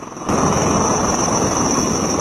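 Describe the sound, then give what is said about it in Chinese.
A helicopter, one of types such as the Z-19 and Z-20, roars loudly and steadily with rotor and engine noise during field-site takeoff and landing training onto a 15-by-15-metre clearing, cutting in abruptly after a brief quiet moment, a thin high-pitched whine over the dense rumble. No one speaks. “野外场地起降要求直升机准确降落在十五乘十五米的空地上，飞行员需要准确判断风向与风速，不断调整直升机飞行姿态，建立正确的下滑航线，才能精准着陆。”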